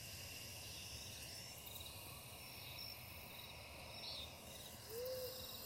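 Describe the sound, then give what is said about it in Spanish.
A steady nighttime ambience of chirping insects and crickets from the Pizca de Motivación channel, with an owl hooting softly and a brief call near the end; no voices. “Acompaño nuestra lectura con la música maravillosa de los sonidos nocturnos del canal Pizca de Motivación.”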